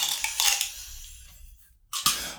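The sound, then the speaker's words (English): A regular six-sided die, rolled during a tabletop game to decide lost sanity points, clatters across a hard tabletop in a quick burst of sharp clicks, settles into quiet, then gives one more bright knock near the end. No voices. “Okay, so uh, the so go ahead and roll one d six.”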